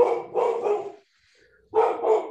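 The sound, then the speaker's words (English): A dog barks several times in two quick bursts, the first a run of three barks, then a short pause before two more loud woofs, with no one talking. “is that your dog?”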